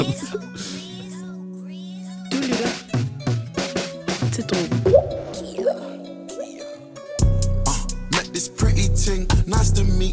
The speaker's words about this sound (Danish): før vi snakker mere om det, så lad os lige, uh, lad os lige høre den. Her kommer uh, en sang